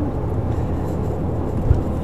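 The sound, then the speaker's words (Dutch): A steady, low rumble of engine and road noise fills the inside of a moving car, constant and muffled with no voices or distinct events standing out. “Want ik zit nu dus in de auto, dus ik heb geen blaadje voor me.”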